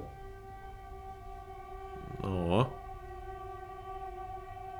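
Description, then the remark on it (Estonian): An Elron train horn holds a steady, droning chord throughout, with a brief louder wavering blast near the middle. “rongid on eriti vihaseks muutunud.”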